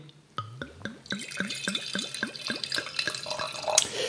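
Ripasso della Valpolicella red wine glugging from a bottle into a glass, a rapid series of hollow gurgles that rise in pitch as the glass fills, with a faint splashing wash underneath. No one speaks.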